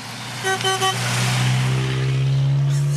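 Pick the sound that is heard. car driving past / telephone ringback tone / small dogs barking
car driving past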